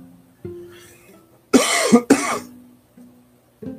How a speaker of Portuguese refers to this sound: Perdão, essa tosse ainda não passou, é alergia, alguma coisa.